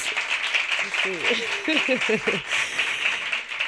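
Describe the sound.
An audience applauds steadily for the musicians, a dense wash of clapping that holds at an even level throughout, with a few voices calling out briefly over it midway.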